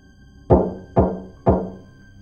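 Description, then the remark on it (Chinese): Three firm knocks on a door at night, evenly spaced about half a second apart, each a solid thud that rings out briefly before the next. No voices, just the knocks. “门外又响起来三下有规律的敲门声。”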